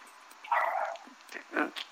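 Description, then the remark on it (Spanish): Small dogs barking in two short bursts, a longer yelping bark and then a sharper one, at moderate volume against a faint background hiss. “Jacinta ya oyó a tus perros que están ladrando”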